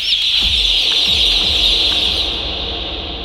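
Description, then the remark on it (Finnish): A dense, unbroken chorus of about 23,000 chickens fills a poultry house section on a farm of four sections and 92,000 birds, high-pitched peeps and clucks blending into a steady, loud wash of chatter with a few low thumps underneath. “Tässä on neljä osastoa meillä. 92 000 sipua.”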